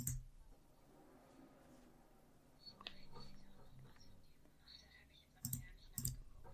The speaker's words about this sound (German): Muss mal einmal ein bisschen hier klicken.